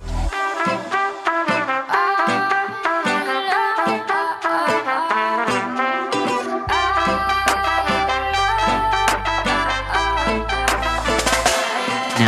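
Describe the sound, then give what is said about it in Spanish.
Dense, bright music with trumpet lines, partly muted, over a busy rhythm and a washy, reverb-heavy snare, plus small aquatic-sounding effects; a deep bass drone joins about halfway through and the whole piece stays loud and full. “meter unas trompetitas hermosas, ah, maravillosas y un, redoblante, ¿viste? Una caja con mucho reverb, medio.”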